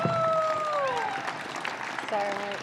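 An audience claps steadily, a dense crackling wash of applause that holds at an even level throughout, with a few sustained cheers and whoops rising above it.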